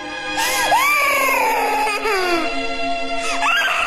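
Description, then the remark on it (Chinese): A small creature, the little monster king later named Huba, cries in grief in a cage, high, warbling wails that rise and fall in long sobbing sweeps, with a fresh wail near the end, over a steady background hum. “在小妖王悲痛的哭声中，天音和霍小兰渐行渐远。”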